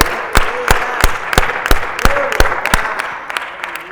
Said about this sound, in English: Come on, put your hands together for the Lord.